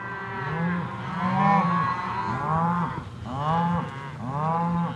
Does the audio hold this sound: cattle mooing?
yes